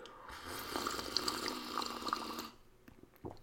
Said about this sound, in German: aber erst nochmal ein frisch gezapftes Tässchen koffeinhaltige Apfelschorle zum Wohl.